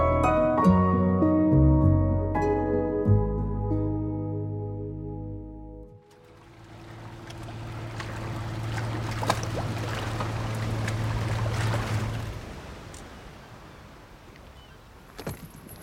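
A short musical passage fades out, then steady sea waves rush and wash in continuously, swelling and receding at moderate loudness with a low rumble beneath, and no voices.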